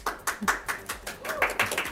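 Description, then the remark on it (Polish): A short burst of applause in a studio as a guest arrives, a few people clapping in quick, slightly uneven rhythm at moderate loudness for about two seconds, with faint voices murmuring underneath. “Dodam, że nie każda osoba ma brawa, jak przychodzi tutaj, więc okay, to jest to...”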